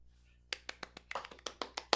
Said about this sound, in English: Unfortunately, I, I stood up and clapped, but uh, unfortunately, clapped.